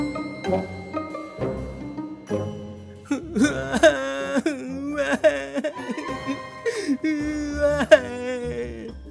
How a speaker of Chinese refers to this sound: 哎，这是一个晴朗的早晨，怎么听到了一个哭声越来越大？离湖边不远的一个树下呢，传来着这个阵阵的哭声哦。